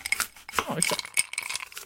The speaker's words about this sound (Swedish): Okej, och, vad, vad, okej, och då kan man sätta på någonting här, till exempel bartender working.